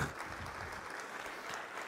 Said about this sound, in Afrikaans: Daai hande klap, daai hande klap